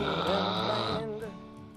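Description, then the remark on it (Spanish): A loud, rasping snore held for about a second, then a softer voiced murmur trailing off. Forceful. “Deja de roncar, animal.”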